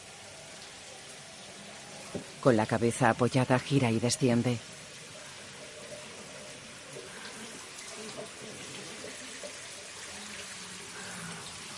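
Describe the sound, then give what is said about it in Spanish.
A steady, even hiss of running shower water fills the whole clip, with a voice speaking briefly over it early on before the water continues alone. “En la ducha, Marina apoya la frente contra la pared.”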